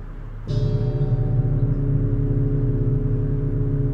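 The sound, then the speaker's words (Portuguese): A golden gong at a monastery is struck once after a short low rumble, and its deep, layered metallic tones ring out loudly and hang in the air, sustaining steadily without fading. “O som do gongo dourado aumenta a sensação de encantamento. Ele reverbera e preenche todo o espaço.”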